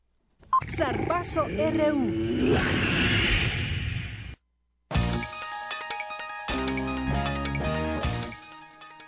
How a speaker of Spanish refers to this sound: Y así con ese rugido llega mi compañero Eric Morales.